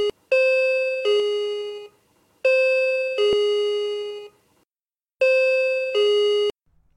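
A doorbell rings three times in a row, each a loud two-note ding-dong chime with short pauses between rings and no voices.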